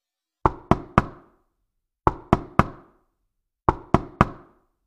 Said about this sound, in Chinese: 不好，原来是那只青蛙 Frog 来了。青蛙 Frog 在门口边敲门边喊着